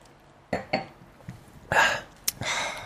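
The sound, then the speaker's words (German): Glasses clink together in a toast: a few short, sharp taps of glass, mixed with soft clattering and shuffling noises, with no one speaking. “Ja, wir, erheben, wir erheben die Gläser.”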